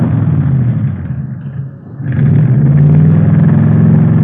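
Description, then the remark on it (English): A custom hot rod engine with Mallory ignition, milled heads and twin Wakefields, about 120 horsepower, built mostly from salvaged wreck parts, revs loudly, its deep rumble dipping briefly as the throttle eases off, then surging back to a strong, steady roar. “Mallory ignition, milled heads, twin Wakefields. Here, let me start it up for you.”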